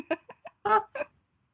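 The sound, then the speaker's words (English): Someone imitates a chicken clucking, like the chicken dance in Arrested Development. There are five quick, throaty bursts, the fourth one longer and louder, with no other talking around it. “You know, um, in Arrested Development, where they're trying to do the chicken dance and they oh.”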